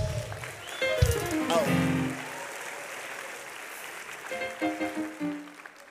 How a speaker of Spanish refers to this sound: Alguien diga aleluya. Un aplauso fuerte Jesús.